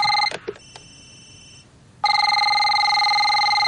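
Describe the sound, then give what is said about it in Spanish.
A cordless telephone rings briefly, pauses, then several phones ring together in a loud, steady, overlapping electronic trill that continues without letup. No one speaks. “Suena el teléfono inalámbrico y luego comienzan a sonar todos a la vez.”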